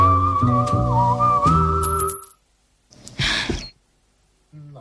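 A whistled, melodic tune plays for a couple of seconds, then after a pause comes one loud, heavy breath, a sharp breathy exhale, followed by a brief tonal sound.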